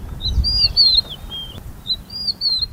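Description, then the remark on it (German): Several birds chirp in quick, high-pitched bursts, with a soft, steady rush of wind through shrubs underneath, in Nairobi National Park early in the morning just after sunrise, with the car engine switched off. No one speaks. “Wenn der Motor aus ist, sind nur die Vögel und der Wind in den Sträuchern zu hören.”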